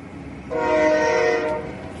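A train horn sounds one steady, loud, chord-like blast lasting about a second over a low rumble of rail noise, then cuts off while the rumble carries on. No one speaks.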